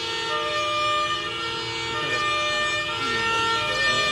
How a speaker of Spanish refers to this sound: En estos momentos eh, fuertes bocinazos aquí en las inmediaciones de la Plaza de la Libertad en Concepción. Esto a la respuesta del pedido de la familia Denis.